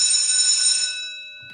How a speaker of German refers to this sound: deine Schule klingelt, hallo. Auf jeden Fall klingelt es gleich.